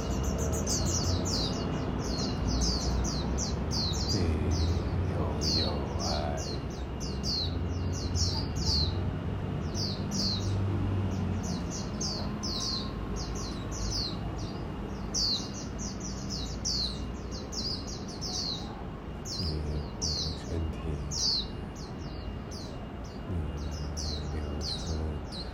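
Birds chirp steadily throughout, a dense run of bright, high-pitched tweets repeating in quick succession over a low, continuous outdoor rumble.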